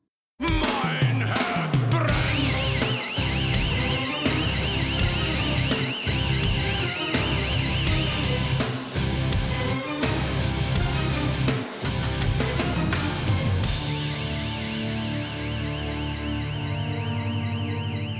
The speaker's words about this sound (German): Ja, richtig gehört. Das war jetzt nicht nur der Sound einer Alarmanlage.